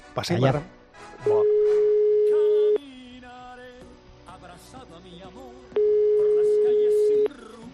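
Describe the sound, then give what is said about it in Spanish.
Two long, steady electronic telephone ringback tones of a phone call placed from Bilbao, each about a second and a half, separated by a pause, sounding over background chatter and voices. “llámale por favor a Rafael que te manda un WhatsApp con el número”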